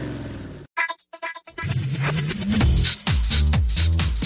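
A loud car engine roars and revs, its low rumble climbing in pitch, with a burst of noise and choppy tones at the start and no one speaking.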